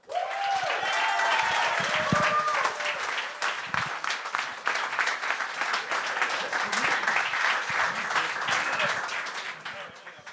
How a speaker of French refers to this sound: Mesdames et messieurs, je sais qu'on accueille avec un tonnerre d'applaudissements